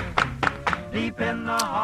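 Three sharp hand claps in a quick, even rhythm, each ringing briefly over a low harmonic tone, then voices sing sustained notes with no more claps.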